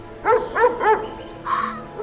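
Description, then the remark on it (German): A wild dog barks three times in quick, evenly spaced succession with a hoarse quality, then gives a longer, higher yelping call after a short pause, fairly loud with no talking. “Ja, das Tier, das wir suchen, ist ein Hund. Ein Wildhund.”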